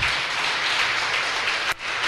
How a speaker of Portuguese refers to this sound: Você que pode, aplauda Jesus. Amém.